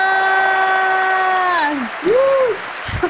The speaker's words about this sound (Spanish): Reciban con un fuerte aplauso